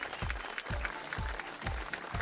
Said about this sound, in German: Das ist jetzt dein Applaus.